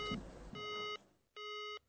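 A telephone disconnected tone as a phone call is cut off: three steady electronic beeps, each lasting under half a second with short gaps between, bright and buzzy in pitch, at moderate volume with no one speaking.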